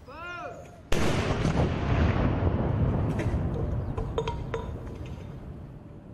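A single booming cannon shot from a ceremonial salute, loud, with a long rolling rumble that fades slowly. Faint sharp clinks and other sounds follow in the background.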